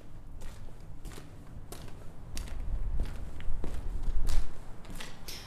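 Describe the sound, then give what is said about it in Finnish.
Steady footsteps of a man striding with long steps at a brisk, even pace, each step a crisp impact over a low rumbling background, growing slightly louder toward the end with no voices. “harmaassa maisemassa harppoo oranssin kellertäväksi energisoitunut mies pitkin askelin”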